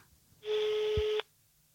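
telephone number being dialed

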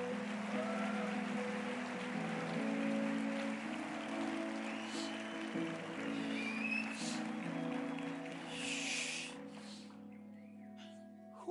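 audience applauding

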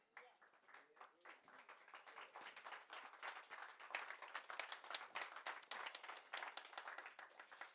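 audience clapping

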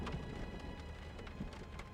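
rain falling

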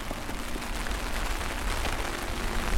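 heavy rain falling outdoors

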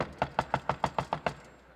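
knock

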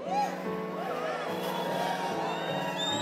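audience shouting and cheering

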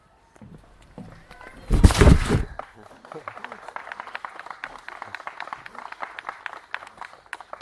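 audience clapping

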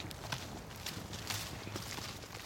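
footsteps walking outdoors

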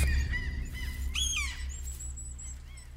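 seagulls squawking

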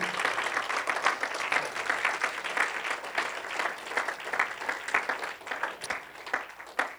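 audience clapping

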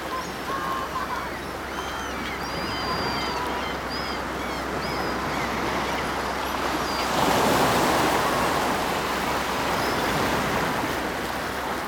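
ocean waves rushing

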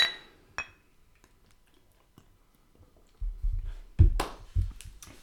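beer glasses clinking

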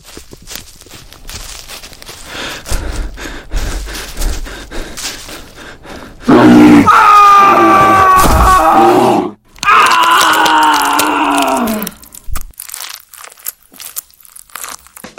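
bear roaring

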